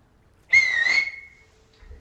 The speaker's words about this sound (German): du siehst quasi, während du wehmütig dorthin schaust, wo die ganzen anderen Matrose mit ihren Schalen stehen, äh, dass Captain Yannick deinen Blick zu suchen scheint und dann auf den Fingern pfeift.